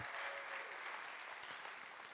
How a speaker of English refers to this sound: All right, let's give these two a, a round of applause. Thank you guys.